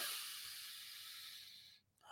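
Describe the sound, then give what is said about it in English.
A long, breathy deep inhale, part of a demonstrated testicular or egg breathing exercise, draws in steadily for nearly two seconds, airy, then cuts off briefly before another rush of breath begins. “ovary breathing you can basically breathe in the inhale”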